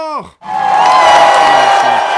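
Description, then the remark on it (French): A loud burst of audience applause and cheering erupts right after a brief falling voiced call, sustaining as a dense wall of clapping and shouts with a few whoops, welcoming David Doivre, introduced as the king of the 8 p.m. news. “Mesdames et messieurs, un tonnerre d'applaudissements pour le roi du 20h, David Doivre”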